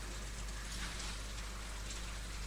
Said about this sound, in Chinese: 也不知道这个雨会不会下一整夜。